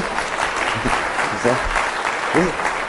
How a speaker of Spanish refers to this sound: Ya te puedes regresar, ¿sí? Un aplauso, por favor, ¿sí?